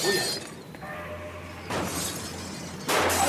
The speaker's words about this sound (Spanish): mesa derribada, jarrón roto, basta más. Habrán encerrado algún perro.